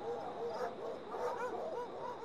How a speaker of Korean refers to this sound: 휴고는 사냥개들을 일렬 횡대로 세운 후 출발시켰다. 달빛 아래 황야는 개 짖는 소리로 가득 찼다.